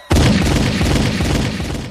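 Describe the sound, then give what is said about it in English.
A loud burst of rapid gunfire outdoors erupts suddenly and keeps going for about two seconds, the shots blurring into a dense, booming rattle with no voices. “We hear gunshot, gunshot this slick out here.”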